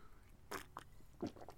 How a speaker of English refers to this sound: Uh, slurp of tea, well, slurp of coffee.